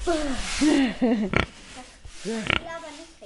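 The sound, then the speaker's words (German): A pig grunts repeatedly, a string of short squealy oinks, while two brief scratchy strokes of a hard broom brush across its back. “Ich wüsste dem Schwein den Rücken.”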